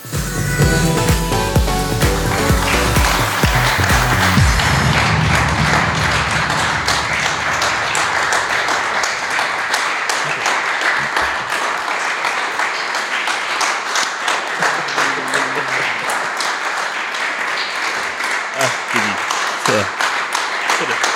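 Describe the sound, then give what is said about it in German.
A live audience at a live event in Kiel breaks into sustained applause, dense overlapping clapping for about twenty seconds, with a brief burst of louder, fuller noise at the very start before settling into steady clapping. “Einen Applaus.”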